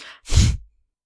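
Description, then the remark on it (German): A voice imitates a monster's snort: one forceful, loud, breathy huff, preceded by a softer short breath, then silence. “Ich lasse jetzt extra eine lange Pause, damit ihr schnauft. Ich habe geschnauft.”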